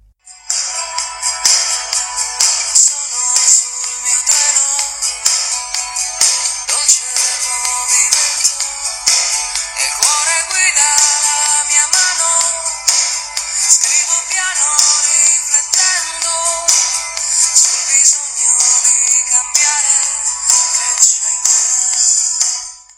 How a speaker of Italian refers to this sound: E non sentite qualcosa in lontananza? Una musica leggera che sta arrivando?